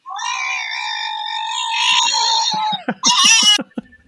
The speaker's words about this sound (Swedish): Alltså det är hysteriskt men det funkar varje gång. Alltså jag sitter och asgarvar för att det bara är en hund. Varför skriker en hund?